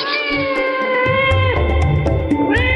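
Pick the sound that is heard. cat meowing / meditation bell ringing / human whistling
cat meowing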